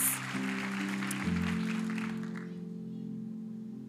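An audience claps together for about two seconds before the applause fades away, while sustained keyboard chords hold steady underneath and carry on alone.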